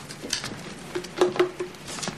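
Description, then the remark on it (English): A deck of cards being shuffled during a card trick: quick, papery riffling and flicking in a few short bursts, moderately quiet, with no voices. “Now just a little shuffle.”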